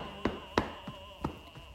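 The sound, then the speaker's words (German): Five dull hand taps on a leg in a steady rhythm, about three per second, tapping down the leg, over the top of the foot and back up the outer side toward the gluteal muscle. The first two are the firmest and the later ones softer, with no voices. “Einfach das Bein runter klopfen, über den Fußrücken klopfen und das Bein an der Außenseite wieder hochklopfen bis zum Gesäßmuskel Muskel hoch.”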